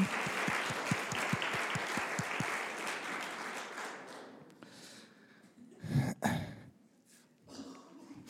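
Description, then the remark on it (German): A crowd claps for the preacher in dense, steady applause that gradually thins and fades, leaving a few scattered claps and some murmuring voices toward the end. “Und wir werden ihm einen äh, großen Applaus geben.”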